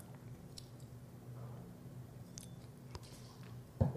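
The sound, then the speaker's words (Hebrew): Someone sips water, with soft wet mouth clicks and slurps over a low background hum, then a single louder swallow near the end. No one speaks. “אני אשתה רגע מים.”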